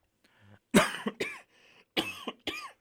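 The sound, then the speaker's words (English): Four harsh coughs in two quick pairs, each burst sharp and raspy, with brief quiet breathing between them and no talking. “Sound like me over there. yeah, no, that came out of nowhere.”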